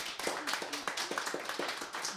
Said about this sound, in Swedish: Ge dem en stor varm applåd.